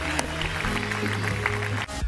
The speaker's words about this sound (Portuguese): Ei, se este pai fez uma festa quando o seu filho voltou a casa, será que nós podemos dar uma enorme salva de palmas a todas as pessoas que voltaram a casa hoje?